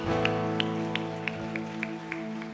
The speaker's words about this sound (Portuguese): Aplauda o nome do Senhor e adore a Ele.